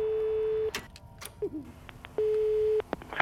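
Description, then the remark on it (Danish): A steady telephone line tone sounds twice, each long and level, separated by clicks and faint line noise, as a tape recorder automatically clicks on to record a phone call in a dark, quiet office. “klikker en af båndoptagerne automatisk til i det mørke og stille kontor. Der er gang i telefonerne igen.”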